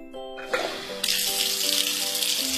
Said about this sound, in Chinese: 这个碗怎么总是洗不干净啊？我用水冲了很久，上面还是有很多油渍。